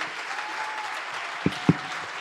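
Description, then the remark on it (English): An audience applauds in a steady, dense wash of clapping that holds at an even level throughout, with two brief low thumps standing out near the end, applauding the church youth who made coffee, handed out bulletins, spoke and led worship. “But um, first off, I want you to give a huge round of applause to the youth who made your coffee, who handed out bulletins, who did the little when you walked through, who spoke, who led worship.”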